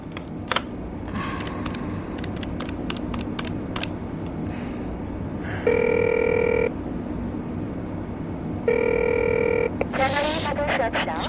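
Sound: telephone ringing unanswered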